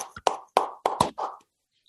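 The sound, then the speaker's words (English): About half a dozen hand claps in an uneven rhythm, each a sharp, fairly loud smack with a short ringing tail, clapping to welcome a new co-host. No one talks during the clapping. “I'm gonna clap it up for you,”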